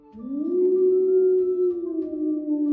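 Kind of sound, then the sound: vocal imitation, voice imitating a howl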